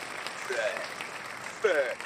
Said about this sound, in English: Why y'all clap for that? God damn.